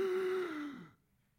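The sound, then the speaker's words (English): A single sharp, breathy gasp voiced by someone imitating a frightened intake of breath, fairly loud, trailing off into silence after under a second. “I almost imagine that some, some wives, they just recoil and you hear the audible gasp.”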